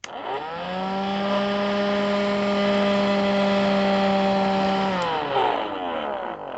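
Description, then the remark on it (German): A steady motor whine ramps up, holds a strained, buzzy drone for several seconds, then winds down. It sounds like a small cordless vacuum cleaner running weakly because its battery is nearly empty. “Allerdings ist der Staubsauger-Akku fast leer.”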